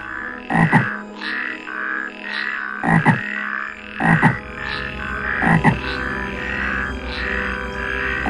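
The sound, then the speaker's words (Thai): A dense chorus of many frogs croaking loudly together at a swamp in a forest, with repeated sharp bursts standing out over a constant, overlapping din of calls and no voices. “หลังจากที่บรรดากบได้รู้ข่าวต่างก็ตกใจเป็นอย่างมาก และก็ต่างพากันขึ้นมาที่หนองน้ำพร้อมส่งเสียงดังคัดค้าน กับการแต่งงานของพระอาทิตย์ครั้งนี้ จนดังระงมไปทั่วทั้งป่า”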